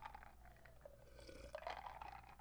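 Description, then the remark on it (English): Someone takes a quiet sip of icy water, with soft slurping and watery trickles over a low background hum. Nobody speaks. “I'm sipping on some icy water.”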